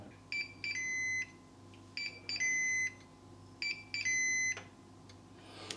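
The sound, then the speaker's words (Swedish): A grill sounds three high-pitched electronic beep signals, each a quick chirp followed by a longer steady tone, evenly spaced over a low constant hum, signalling that the grill is ready for grilling. “Sådär, de där tre pipen talar om att grillen är färdig.”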